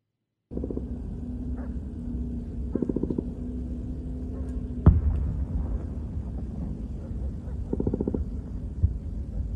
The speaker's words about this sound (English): You can hear there all that gunfire and also the strikes that appear to be called in to this specific area. Another one right there. The Israelis are clearly engaged with militants inside Gaza in the northern part of the strip.